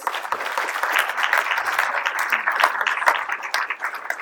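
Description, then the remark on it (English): A crowd at a Tongan family event applauds steadily as people are called up in front of the stage, many hands clapping together in a dense, continuous wash of sound that holds at an even loudness for several seconds. “Could we have another round of applause?”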